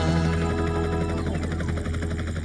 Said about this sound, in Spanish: El helicóptero, helicóptero, de izquierda a derecha, vuela ya.